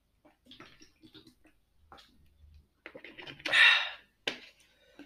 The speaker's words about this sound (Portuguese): Tenho que beber água. Beber água é muito importante.